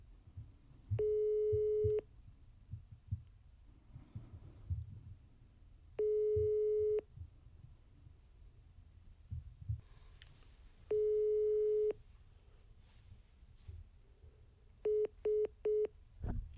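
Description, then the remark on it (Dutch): A phone ringback tone sounds three times on an outgoing call, each a steady one-second burst about five seconds apart, then a quick run of short busy beeps ends the unanswered call. Faint background rumble, no talking. “We gaan het deze week met jouw telefoon proberen, want misschien dat hij steeds mijn nummer ziet en denkt, ja.”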